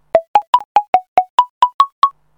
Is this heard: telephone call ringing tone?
yes